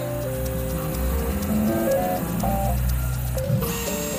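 A Revo Foods 3D food printer runs steadily, printing vegan salmon in a cellar vault in Vienna's 8th district, its stepper motors whining in shifting tones with faint mechanical clicks over a low hum, no voices present.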